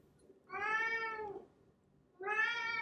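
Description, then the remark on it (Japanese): A company cat, Kyan-chan, meows twice, fairly loud, during a radio recording: a long drawn-out cry lasting about a second, a pause, then a second meow starting near the end. No one speaks. “あの、今日もですね、あの、猫と一緒にあの収録をしていて、まあ、それがいけないんですけど、あの、ちょっと夜は猫と同じ部屋になっちゃうんですね。”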